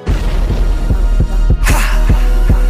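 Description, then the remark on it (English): A hip-hop beat plays loud, with heavy booming kicks thumping steadily under a droning bass. Brighter hi-hat hiss joins partway through. No one talks. “put their take on a beat like this is important.”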